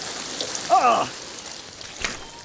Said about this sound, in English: Dad stops at the gas station. I flush the toilet. The water pours everywhere. Uh-oh.